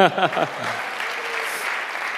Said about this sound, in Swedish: Och barnen är faktiskt första gången på Wow Kids i Stockholm. Det, det är bara det värt en applåd tycker jag.